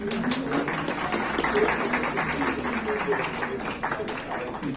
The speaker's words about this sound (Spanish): Y eh, nada, con un aplauso de ustedes quiero recibir la invitado de hoy, la chef del restaurante Somos